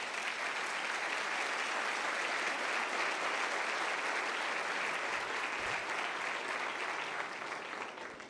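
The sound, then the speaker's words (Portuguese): Sustained applause from a large church audience applauding Jesus, a dense steady wash of clapping that holds at an even level for several seconds before tapering slightly at the end, with no voices standing out. “Vamos aplaudir Jesus por isso?”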